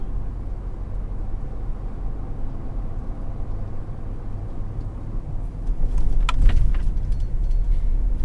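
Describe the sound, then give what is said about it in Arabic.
A car with no petrol left drives along the road after six hours on the way from Jeddah, with a steady low engine and tire rumble swelling a little louder toward the end. No one speaks. “السيارة ما فيها بنزين وجيعان بوقف المحطة أشوف لي لقمة أكلها صار لنا ست ساعات بالطريق”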